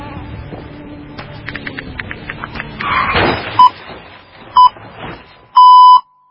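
A phone's text message notification beeps three times, loud: two short tones about a second apart, then a longer one, following a stretch of faint clattering and rustling.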